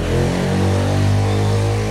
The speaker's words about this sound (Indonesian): Ini berisik. Jadi kalau ada motor yang lewat harap dimaklumi mm -hmm. karena di sini Eh, populasi motor begitu membludak. Ya, sangat banyak ya.